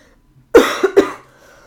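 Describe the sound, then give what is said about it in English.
A loud cough in two or three quick bursts, harsh and breathy, followed by a moment of near silence. No one speaks. “You just remember I coughed right after the intro.”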